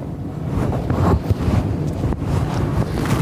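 Hard, sustained blowing through a cloth face mask at a lighter flame, which goes out at the first blow, in Manhattan: a loud breathy rush right against the microphone with a low rumble that briefly dips a couple of times before continuing. No one speaks.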